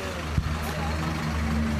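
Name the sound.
bus engine idling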